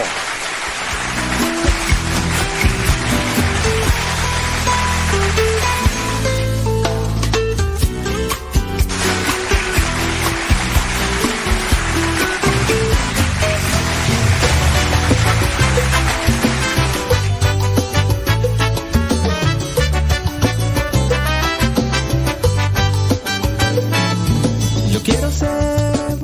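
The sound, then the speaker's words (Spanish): A dense, steady wash of applause keeps going for nearly half a minute, loud and unbroken, with some tonal sound running underneath and no one talking. “Mi, un aplauso, merece un aplauso.”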